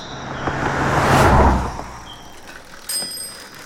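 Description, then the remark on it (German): A bicycle rolls past on a countryside ride in spring with a broad whooshing rush of tyres and wind, then a bright bell rings near the end with a sharp, sustained metallic ding. “So eine Fahrradtour übers Land im Frühling, herrlich, allein der Duft, I love it.”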